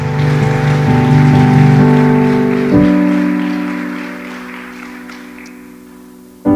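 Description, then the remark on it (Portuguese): A church audience applauds Jesus in a steady, dense wash of clapping over sustained keyboard chords, the clapping gradually thinning and fading toward the end. “Pode aplaudir Jesus.”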